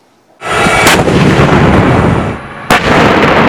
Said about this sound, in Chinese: M1 坦克主炮一响声势惊人，除此之外，优秀的运动和越野能力也是这型坦克成为美军主力战车的原因之一。